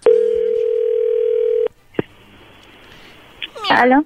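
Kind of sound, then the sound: signal or alarm, telephone dial tone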